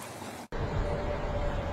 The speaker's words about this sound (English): You can see and you can hear that the water is still flowing very rapidly.